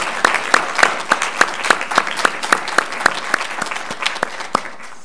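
An audience at a Unitarian Universalist church service applauds its musicians, clapping in a steady, fairly even rhythm of sharp, crisp strikes at moderate loudness for several seconds, with no one speaking.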